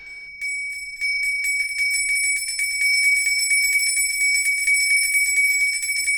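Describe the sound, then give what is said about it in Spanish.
Bells ring loudly and continuously, a rapid, shimmering peal of high metallic tones that starts abruptly and keeps going without pause. No voices are heard. “¿Quién viene a buscarme con esas campanas infernales?”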